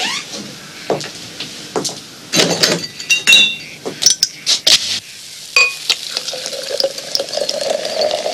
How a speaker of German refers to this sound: schenkt sich's ein, das Bier, und während das Bier einschenkt, gibt, äh, wird das Bier quasi in den Leuchtturm eingeschenkt